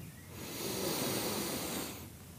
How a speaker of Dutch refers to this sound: En dan doen we nog een keer ademhaling. Adem in.